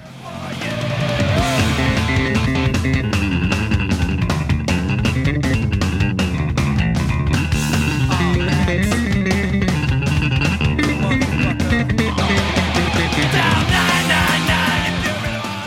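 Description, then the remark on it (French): A fast, raw, band-inspired punk rock song plays loud and nonstop, with pounding drums, two gritty guitars and a busy, prominent bass line that takes solo-like runs. “il te faut en base un son brut et rapide inspiré des …, deux guitares et des solos de basse en veux-tu en voilà.”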